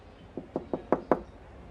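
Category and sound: household object, knocking on a door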